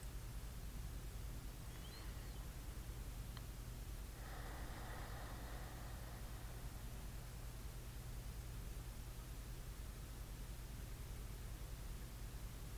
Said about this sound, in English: Let the calm sounds of the waves, steady and true, my breath flows in and out.